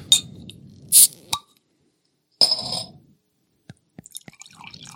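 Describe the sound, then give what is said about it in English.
Deep amber beer is poured into a glass in a splashing rush of liquid lasting under a second, surrounded by a few sharp clinks, a pop and scattered drips. No one speaks. “Oh, that pours nice.”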